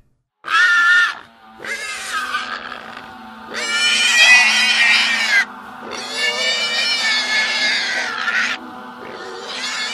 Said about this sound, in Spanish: Fue ahí cuando todos los ruidos fueron opacados por el ensordecedor chillido de un puerco.